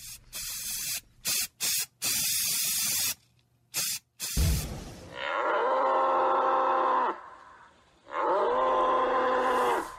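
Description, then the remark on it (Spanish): A few sharp hissing bursts, like spray, give way to a bull's deep mooing: two long, loud, drawn-out bellows with a short pause between them. “Y ahora estamos escuchando un toro, porque es hora de tomar esto, al toro por los cuernos, como se suele decir, y seguir con nuestra historia sonora.”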